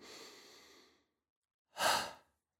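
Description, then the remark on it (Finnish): Two audible breaths during a relaxation breathing exercise: a long, airy breath that fades out over about a second, a short silence, then a sharper, louder rush of air. No talking. “Hengittää sisään”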